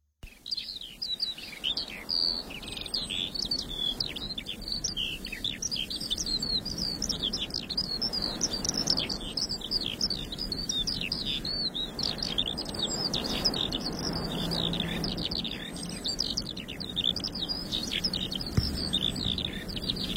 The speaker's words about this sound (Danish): men til jer, der ikke har hørt en lærke, så synes jeg bare, at vi lige skal have 30 sekunder med en lærke fra dengang den levede, så kan man jo sidde i sin bil og mindes.